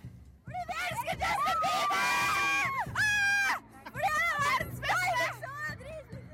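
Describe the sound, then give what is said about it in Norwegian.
A crowd of teenage fans in Oslo screaming for a Canadian teenage pop star, in high, piercing waves, many voices overlapping in loud sustained shrieks that rise and fall over several seconds. “Og canadisk tenåring skaper stor stemning i Oslo.”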